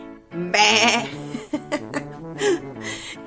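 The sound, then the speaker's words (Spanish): A loud, quavering goat bleat rises, then breaks into a few shorter stuttering bleats and a final wavering cry, with no talking around it. “Aquí mamá cabra reportándose.”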